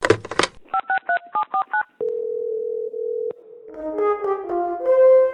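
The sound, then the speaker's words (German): Answering machine sounds as messages are played back: a few clicks, then a quick run of about seven touch-tone beeps, a long steady beep, and a short electronic chime-like melody, all clear with no talking. “Haben wieder Leute unseren Anrufbeantworter frequentiert? Ich hör mal ab.”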